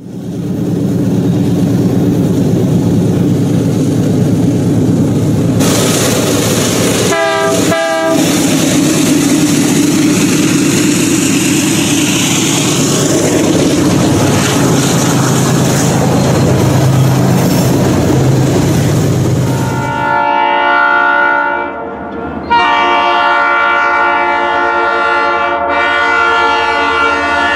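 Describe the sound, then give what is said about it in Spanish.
At night, a train rumbles past with a loud, steady roar, giving a short horn blast partway through and then long, blaring horn calls as the rumble fades. No voices. “Lo imagino vacío, lento, fantasma, atravesando la bruma con ese sonido que espanta pájaros y hace temblar las casitas pegadas a las vías.”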